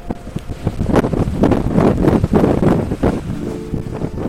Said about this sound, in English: But what has made the biggest impression on me so far is the wind.